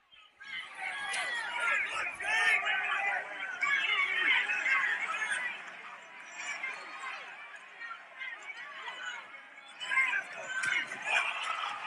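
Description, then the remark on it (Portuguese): A dense crowd at a fight shouts and yells continuously for the whole stretch, many voices overlapping into a loud, agitated roar with a few sharper peaks of louder cries. “Não dá pra ter tanta noção por causa do que a galera tá gritando.”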